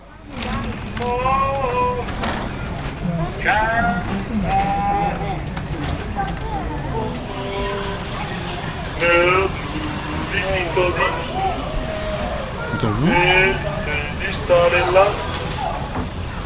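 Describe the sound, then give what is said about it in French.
Gondoliers on the canals of Venice sing and call out as they row couples through the canals, in a steady murmur of outdoor bustle, their voices rising in long, wavering phrases. “On va écouter les gondoliers qui chantent encore en promenant euh, les amoureux, à travers les canaux.”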